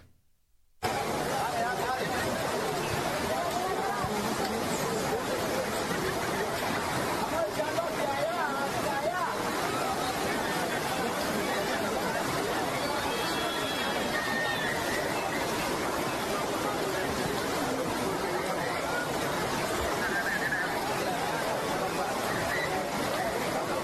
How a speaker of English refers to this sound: You want to see what our current illegal immigration policy looks like in terms of volume? Just as an example, check out this crowd of illegals crossing the Darien Gap.